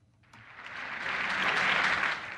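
An audience bursts into applause at a concert. After a brief quiet opening, dense clapping swells and holds at a loud, steady roar with no voices on top.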